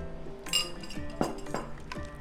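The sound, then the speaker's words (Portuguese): A utensil stirs thick choux dough for churros in a metal pan in a figure-eight motion, scraping the excess from the sides, making repeated clinks and scrapes at an uneven rhythm, fairly quiet, with no talking. “Aí você vai fazendo o oito dentro da panela, tirando o excesso dos lados assim também.”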